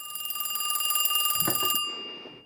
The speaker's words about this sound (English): phone now rings.